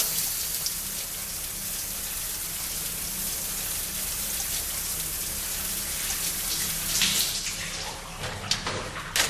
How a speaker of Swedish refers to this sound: Börjar duscha färdigt nu? Vad i helvete? Stäng av duschen.